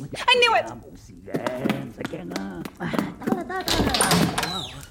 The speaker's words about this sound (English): Did you hear that? I think it's the door. I don't think doors can knock themselves